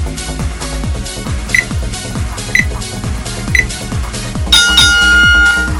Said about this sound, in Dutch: Let op de bel. De bel geeft aan dat je direct naar een hoekstoot toe gaat.